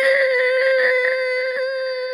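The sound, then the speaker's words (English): A player vocally imitates a loud, sustained, high-pitched scream lasting about two seconds, steady and piercing, with no other talk around it. “People can see people know that we come in because as we enter the room, there's a loud scream”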